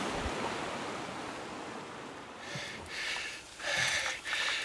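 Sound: rushing river water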